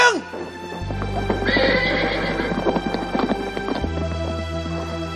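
In a radio drama about the Red Army, a war horse gives a loud, high whinny that trails off as Xiao Ke leaps into the saddle, followed by steady clip-clopping hooves over a low rumbling background.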